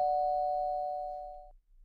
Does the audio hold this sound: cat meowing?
no